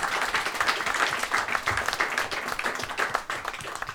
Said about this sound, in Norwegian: Så jeg skal gi han en applaus, ass.